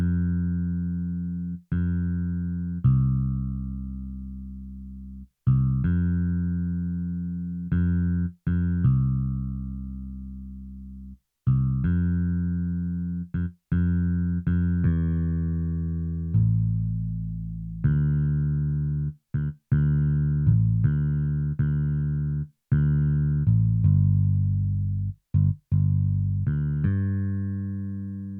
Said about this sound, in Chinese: 这边的话，我们第一个，像我在混音的那一集，我有跟大家提到，我会先从低频的声音开曲来去做混音，所以鼓跟贝斯，你可以再去听贝斯长这个样子。